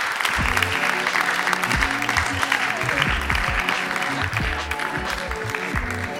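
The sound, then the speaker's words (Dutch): Sustained applause from an audience for writer Rob van Essen, a dense steady patter of clapping hands filling the room for several seconds, with faint low murmurs underneath. “Een groot applaus voor Rob van Essen, dames en heren.”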